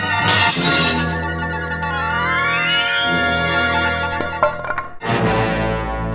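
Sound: glass shattering sound effect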